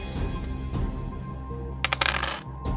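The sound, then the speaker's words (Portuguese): Dice clatter across a hard table in a quick burst of sharp rattling clicks, after a stretch of low background hum and faint room noise, as players roll for power in a game. “Eu quero que todos vocês rolem pra te poder.”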